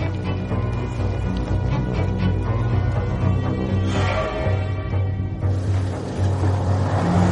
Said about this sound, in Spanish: De pronto divisa al fondo del pinar el coche de Macris que circula lentamente.